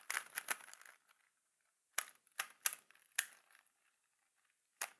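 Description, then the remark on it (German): Crisp plastic clacks of an old standard Rubik's Cube being turned in a typical move: a quick flurry of clicks at first, then a few separate snapping turns with short pauses between, no voices. “Das hier ist der alte. Ich mache jetzt mal den typischen Move. Halt warte, Ding. warte. Das ist der Standard Rubik's Cube?”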